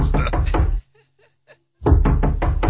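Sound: knocking on a door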